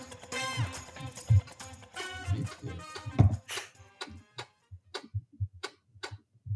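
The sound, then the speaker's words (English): A two-month-old Lenovo laptop gives off a steady run of sharp ticking clicks, fairly loud, coming in a regular rhythm that stands out most clearly once the busier noise at the start fades. “But now two months in, and like just listen listen to this.”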